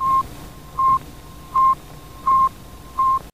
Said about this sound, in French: Euh, mais effectivement, la seule chose que Spoutnik faisait, c'était émettre un petit bip régulier. Ce bip, il a été enregistré. Et mm. donc, je peux vous le faire écouter.